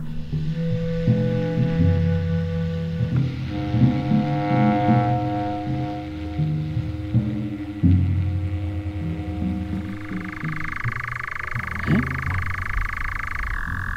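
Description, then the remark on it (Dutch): A very distant European nightjar gives a faint, steady churring trill in the second half, partly buried under a loud chorus of croaking frogs; no one speaks. “Heb je hem gehoord? Ik heb hem gehoord. Het is heel ver, hè? Hij is heel ver.”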